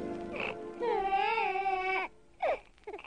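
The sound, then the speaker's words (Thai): A newborn baby boy, the son Isaac born to Sarah in the Bible story, cries in a long, wavering high-pitched wail, followed by a couple of shorter broken sobs. No talking is heard. “โอ้ย ฟังเสียงร้องดูสิ แม่ท่าทางดูแข็งแรงจริง ๆ เลย ลูกพ่อ นี่เราจะตั้งชื่อว่า อิสอักก็แล้วกันนะ”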